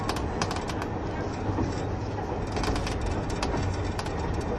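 A KiHa 71 series diesel express train, the Yufuin no Mori No. 3, running between Yufuin and Beppu, with a steady, dense low rumble and scattered sharp clicks and rattles over it, no voices present.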